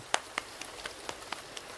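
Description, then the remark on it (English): Soft taps on a lap, about eight of them in a loose, steady rhythm, mimicking light rain. Each tap is a brief, quiet pat over a faint hiss, with no voices. “Now, quiet that rainstorm a bit by tapping on your lap.”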